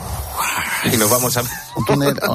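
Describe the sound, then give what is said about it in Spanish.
A short breathy whoosh, voiced by a person as a wind-tunnel sound effect imitating the rushing wind of Mesopotamia, hisses for under a second before people talk and laugh. “No, que, que, me hagas el efecto sonoro del túnel de viento.”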